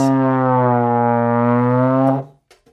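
A trombone, blown through a cupped metal mouthpiece, sounds one long, loud, low note, held steady and rich for about two seconds before cutting off, followed by a couple of faint clicks. No one speaks.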